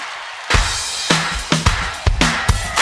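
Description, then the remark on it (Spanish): An audience claps together, a dense wash of hand claps with strong accented beats landing roughly every half second in a loose rhythm. There is no talking. “A ver las palmas de Mallorca.”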